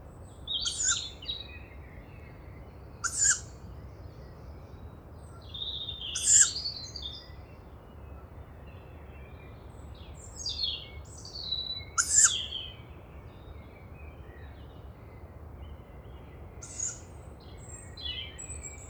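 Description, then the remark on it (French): A young tawny owl in the Bois de Vincennes gives harsh, hissing begging calls every few seconds in late May, while other birds chirp and twitter softly in the background of a quiet dawn. “Et là il y a une jeune chouettulotte juste”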